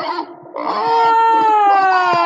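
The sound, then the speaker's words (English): A pig squeals loudly and shrilly: a short cry, a brief pause, then a long, sustained squeal that holds steady and sags slightly in pitch toward the end. “Aha, this is a pig.”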